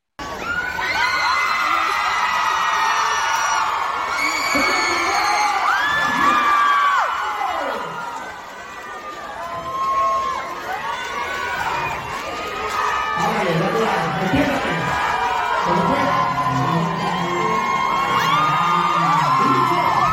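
Loud, continuous shouting and cheering from a crowd, many overlapping voices whooping and yelling with high-pitched cries, dipping briefly before surging again at full intensity.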